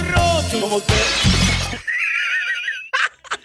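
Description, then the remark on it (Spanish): A loud crash of plates shattering, with broad bursts of breaking ceramic in the first two seconds, then thin ringing shards and a couple of sharp clinks trailing off. “Como que se le caen los platos.”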